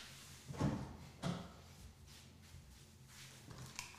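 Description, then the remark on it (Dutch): A cat scratches at a door: two louder scraping thumps rattle the door early on, then softer, intermittent rasping scratches follow, with no voices. “Ja, er stond een kat tegen de deur aan te krabben.”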